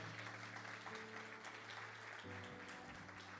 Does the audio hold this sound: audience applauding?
yes